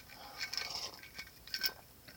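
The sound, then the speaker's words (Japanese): Someone drinks a highball from a glass, with a few quiet, bright clinks of ice against the sides and soft sipping noises, with no talking. “すいませんちょっとあのハイボールを飲ませてくださいすいません仕事終わりで お疲れ様です”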